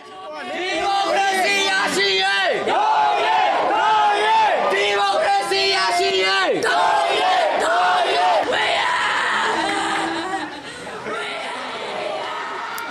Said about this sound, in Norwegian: vi hører det gråt og slagord mot militærstyret i Myanmar under en begravelse av en 13 år gammel gutt. Han ble skutt i byen Yangon på lørdag, drept av et streifskudd fra soldater da han lekte i en bakgate i byen.